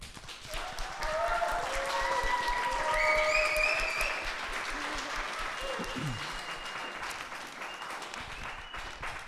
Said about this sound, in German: Dafür riesen Applaus an euch.